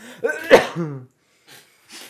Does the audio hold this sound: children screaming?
no